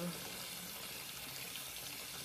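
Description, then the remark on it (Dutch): Tap water runs in a steady, continuous hiss as a wax cloth is rinsed beneath the stream, the flow fairly loud throughout. “Ik kan er wel een stapje voor trekken. Met dat stroom stromend water.”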